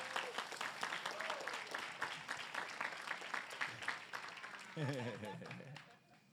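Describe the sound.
A round of applause: dense, steady clapping from a crowd lasting several seconds, with a voice briefly speaking over it near the end as the clapping fades out.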